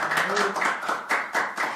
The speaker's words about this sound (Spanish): Aplaudo, aplaudo, un aplauso, un aplauso, un aplauso, un aplauso.